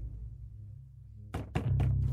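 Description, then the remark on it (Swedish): Three hard, heavy knocks on a door at a secluded place land in quick succession after a stretch of quiet low hum, each blow a loud, dull thud with a sharp attack. “Och sen så knackade det hårt på dörren och jag menar det är ganska ensligt där ute så jag blev ju jätterädd”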